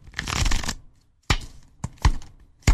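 A deck of playing cards is riffle-shuffled in a quick, dense flutter, heard over the telephone, followed by several sharp, separate snaps and taps as the cards are squared up. Fairly loud, with no voices.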